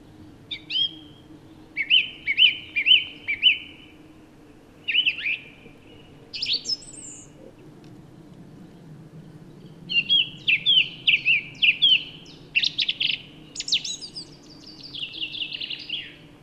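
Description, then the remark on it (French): A song thrush sings in bright, repeated phrases, bursts of clear notes separated by short pauses, over a soft, steady low hum of insects, on a mild spring morning of about 15 degrees in a mixed conifer and broadleaf forest in a valley in the Drôme, France. “je suis accueilli par la grève musicienne, mais aussi par un, un tapis sonore d'insectes.”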